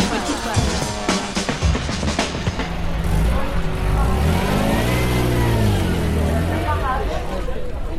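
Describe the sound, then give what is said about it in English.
A Ferrari Dino sports car engine revs and accelerates away, its tone rising through the gears in sweeping harmonic bands, fairly loud and steady with some background chatter early on. “That was a sound of a dino going away.”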